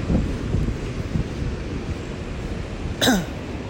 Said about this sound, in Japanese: ちょっと波の近くに来たのでまた波の音が大きくなってきたんでしょうか